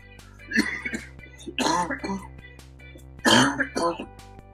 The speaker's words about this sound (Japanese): 咳が出たよ。